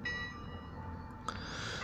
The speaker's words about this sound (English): And the bells ring again. The Tubingen bells ring again.